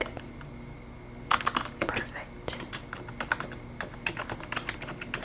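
Soft typing on a computer keyboard at a resort front desk during a check-in roleplay: a quiet start, then irregular bursts of light key clicks with small pauses, over a low steady background hum.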